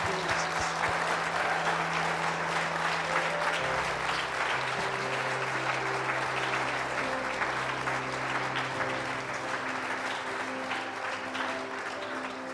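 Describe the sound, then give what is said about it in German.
A church audience claps steadily and loudly for about twelve seconds, a dense, even patter of many hands with a low sustained tone humming underneath; no one speaks. “Geben wir diesen Menschen mal einen kräftigen Applaus.”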